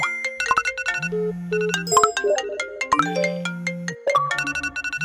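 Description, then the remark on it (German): A bright electronic notification jingle plays alone, a quick melodic sequence of tonal beeps and chimes in a few rising and falling phrases, clear, lasting about five seconds, marking the start of a feedback segment. “Ja, wenn ihr den Ton hört, dann äh, ist für uns die Kategorie Feedback gestartet und wir gehen quasi nur noch darauf ein, was ihr ähm, so zu unseren Themen aus der letzten Sendung gesagt habt und was für Feedback an uns zurückkam?”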